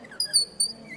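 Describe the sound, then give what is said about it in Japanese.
High, thin squeaky chirps from a wooden bird call, a palm-sized block of wood with a large screw that is turned to make it sound, two bright pitched squeals in quick succession, moderately loud, with no one talking over them. “っていうね鳥の鳴き声みたいに聞こえますけど”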